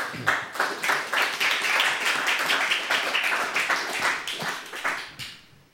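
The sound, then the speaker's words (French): Steady audience applause after a piano performance of the opening of the prelude to Florent Schmitt's La Tragédie de Salomé on the Steinway of the Lagrange Fleuret music library, dense overlapping hand claps forming a bright crackling wash that holds at a fairly even level before fading out in the last moment; no voices. “on peut l'applaudir.”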